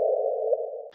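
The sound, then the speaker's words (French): A sonified gravitational wave chirp: a steady, mid-pitched electronic tone holds for about a second, then cuts off in a short, hissy burst. No one speaks. “Eh bien ça, c'est le son du non gravitationnel.”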